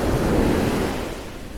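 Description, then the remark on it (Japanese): Ocean waves wash ashore in the morning at sunrise in a steady, broad rush of surf, loud, with a low wind-like roar that eases slightly toward the end. No voices are heard. “波の音をお届けしています”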